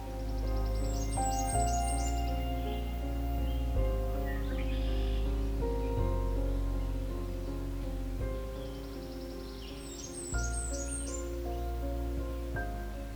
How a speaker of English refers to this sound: The Blackburnian warbler is a small, brightly colored warbler found high in the canopy of mixed forests in parts of eastern North America. The male songs are rapid and high pitched, such as this song, which sounds like Tisa, Tisa, Tisa.